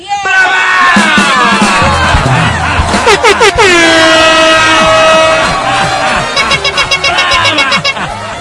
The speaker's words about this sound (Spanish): la emoción de lo que escuchas es la reacción lógica y natural de un público que ve a un gran artista interpretando una gran canción.